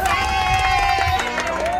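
A crowd applauds with steady, dense clapping that stays loud throughout, mixed with cheering voices and a sustained high whoop rising over the noise.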